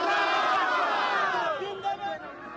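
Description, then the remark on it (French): A small crowd celebrating in the streets of Kabul, Afghanistan, marking the Taliban's first year in power with weapons pointed at the sky, many voices shouting and cheering together, loud, a steady din that thins slightly toward the end. “Pour célébrer leur première année au pouvoir, une petite foule dans les rues de Kaboul, armes pointées vers le ciel.”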